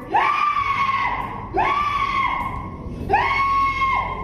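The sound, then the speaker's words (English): A voice imitates an Aztec death whistle with three loud, shrill, sustained screeches, each about a second long. The pitch jumps up, holds steady, then drops, with brief pauses between them. “killer impression of an Aztec death whistle.”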